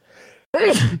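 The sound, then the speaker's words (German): A soft intake of breath, a brief pause, then a single loud sneeze with a voiced, explosive burst, heard alone without any talking. “Gesundheit.”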